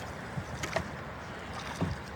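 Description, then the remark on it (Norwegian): A fisherman steers a small boat back across river water on the Nile in Egypt, with a steady wash of water noise and a few soft knocks and splashes at irregular moments, with no voices. “Nasser styrer båt tilbake mot elva Kursaya”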